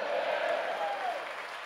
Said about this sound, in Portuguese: Ah, agora dá um glória a Deus e uma linda salva de palmas, Jesus.